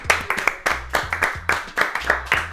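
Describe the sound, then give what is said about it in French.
An audience at the show Music Mail, celebrating its third anniversary, applauds with sharp, distinct claps that come in a quick, fairly steady rhythm, moderately loud throughout, with no voices over them. “Ce qu'il faut savoir, on, en a ah parlé dans l'émission d'avant, c'est qu'on fête les 3 ans de Music Mail, donc il y a du public derrière nous. On dirait qu'on... Voilà, bravo, merci au public.”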